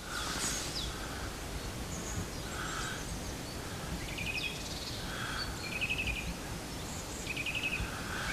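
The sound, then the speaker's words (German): A common chaffinch sings repeated short trilling phrases, each ending in a brighter flourish, over a steady outdoor hiss of wind or rustling. “Das ist ein, einfach und schlicht ein Buchfink.”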